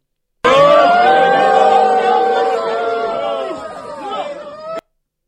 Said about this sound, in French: on entendait euh, donc des cris, euh, des affrontements